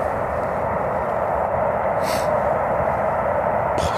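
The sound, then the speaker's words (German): A loud, steady roar of a passing train fills the whole stretch, a dense low rumble with brief hissing or squealing bursts near the middle and end, and no voices. “schon echt laut, das, der Zugverkehr.”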